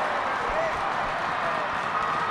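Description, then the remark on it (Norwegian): A stadium crowd applauds Haaland during the Norway versus Faroe Islands football match, a dense, steady wash of clapping and crowd noise that holds at an even loudness throughout, with no single claps standing out. “Nå ser vi at stadion her eh, klapper på for Haaland.”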